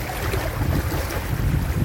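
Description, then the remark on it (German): Steady seaside ambience recorded at the sea on a warm day, with gusty wind buffeting the microphone and a low rumble of salt water and surf, continuous and fairly loud throughout with no voices. “Warum ich diese Podcast-Folge heute am Meer aufnehmen möchte, ist,”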